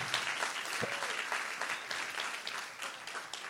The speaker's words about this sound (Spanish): Dar un aplauso fuerte a Jesús. Un acto profético en esta mañana.